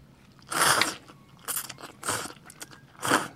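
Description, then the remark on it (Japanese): Someone bites and chews food made 27 hours earlier and loosened in soup broth, with four moist, crunchy bursts of chewing separated by short pauses, fairly loud and with no talking over it. “うん本当だどうでしょう確かに作りたてよりは少しやや硬いけどもでも全然、うん、うん、あの変わらないっていうか弾力が逆につくようなそう弾力がついてる”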